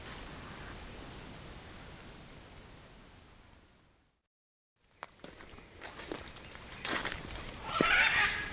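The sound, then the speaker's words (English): Harsh, raspy squawks of macaws break out overhead near the end, over a steady high insect hiss, with a few soft thuds like footsteps beneath them. “There's some macaws above us.”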